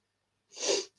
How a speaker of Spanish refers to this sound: a veces entran ganas de estornudar de tanto hablar rápido.